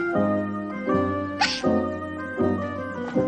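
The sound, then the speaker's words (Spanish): A child hiding in a small cupboard hiccups repeatedly, with about five squeaky, voiced hics in a steady rhythm roughly once a second. Fairly loud, and no one speaks. “Guido oye el hipo y abre la puerta.”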